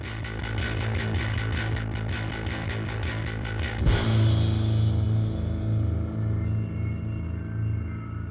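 A loud, dense music track plays on the radio program Kontroll Alt Elite on Radio Revolt, with a steady rhythmic pulse in the first half, then a sudden crash-like burst near four seconds that shifts into sustained, droning distorted tones.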